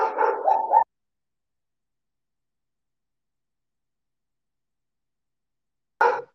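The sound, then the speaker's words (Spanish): Dogs fighting outside bark and snarl in a rough, overlapping flurry for under a second, then silence follows until one more short burst of barking at the very end. “Pinches perros, güey. Se andan peleando allá afuera, Dios mío, güey.”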